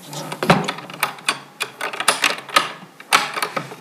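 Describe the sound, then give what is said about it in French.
Rummaging through papers in the first drawer, the back drawer, with the identity card on top of everything: steady crinkly rustling broken by irregular clicks and soft knocks as items are shifted about, with no talking. “là, il y a le tiroir. Le premier tiroir, le tiroir du fond.”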